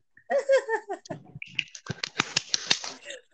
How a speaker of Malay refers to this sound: give it tepuk tangan.